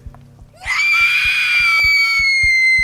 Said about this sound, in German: Ihre mächtigen Lungen sogen den Sauerstoff in sich, ihr Herz pumpte mehr Blut in ihre Beine und voller Verzweiflung entfuhr ihr ein Schrei.